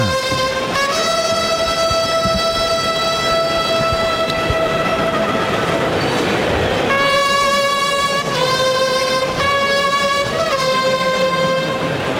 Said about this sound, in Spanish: En Carrusel Taurino, ahí suenan los clarines y timbales de la Plaza de Toros de Roquetas de Mar, el coso de la Salina.